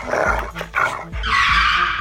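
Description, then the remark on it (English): A dog barks loudly and repeatedly at a car thief, short sharp bursts over a rumbling engine and squealing tires as the thief pulls away fast in the car. “Whoa, down boy.”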